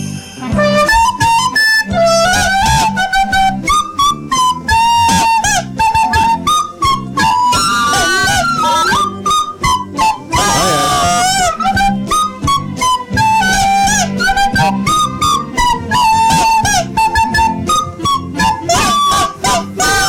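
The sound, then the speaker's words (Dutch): A recorder played badly by a contestant in a Christmas talent show, with shrill, squeaky, wavering notes that honk and squeal off pitch, loud, continuing without a break for about twenty seconds. “geen zanger, maar wel een befaamd blokfluitspeler.”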